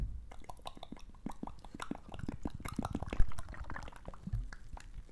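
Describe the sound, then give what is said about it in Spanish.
Beer being poured, a steady run of bubbly, gurgling glugs and fizzy splashes lasting several seconds, with no one speaking. “Vamos a hacer ASMR de Cheve.”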